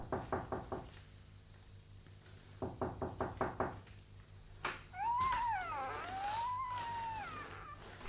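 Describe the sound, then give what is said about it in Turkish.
Two quick bursts of firm knocking on a door, five or six raps each, followed by a drawn-out, wavering cat-like yowl. “Kapıyı vurdum Duymadınız.”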